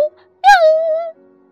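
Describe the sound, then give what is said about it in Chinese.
A human voice imitates a cat's meow: one drawn-out, fairly high-pitched call lasting under a second, starting bright and sliding slightly downward before cutting off, with quiet moments before and after. “咦，别踩我的尾巴！喵喵喵”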